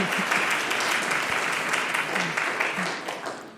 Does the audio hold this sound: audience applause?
yes